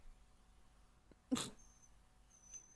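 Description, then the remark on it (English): A dog lets out a single short, breathy snort or sneeze, one sharp burst against otherwise quiet surroundings with no talking. “So until next week, when hopefully these dogs are not doing this.”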